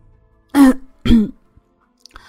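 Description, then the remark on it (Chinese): A man who has choked clears his throat very carefully twice, two short, rough, moderately loud rasps separated by a brief pause, followed by near silence with a few faint small noises. “他呛住了气管，所以停顿了一下，非常非常仔细的清了清嗓子。”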